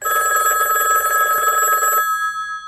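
A telephone rings with a steady, loud electronic trill for about two seconds before an answering machine message, then cuts off, leaving a faint high tone fading out. No voices are heard.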